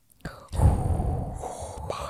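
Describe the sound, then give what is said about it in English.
A voice imitates Darth Vader's heavy, mechanical respirator breathing: a sharp intake, then a long, rasping breath that fills nearly two seconds, with no words spoken. “Oh, the heavy breathing makes sense.”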